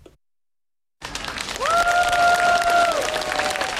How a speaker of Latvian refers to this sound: Ar aplausiem sagaidot un pavadot dažādu veselības aprūpes darbinieku arodu organizāciju un profesionālo asociāciju pārstāvju uzrunas, šodien mierīgi aizvadīts mediķu pikets pie valdības nama.